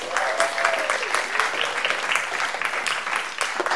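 A crowd applauds steadily, a dense wash of clapping that holds at an even, fairly loud level throughout, with a few faint voices and a brief rising whistle-like tone early on. The applause is in a church, for two people called up to the front.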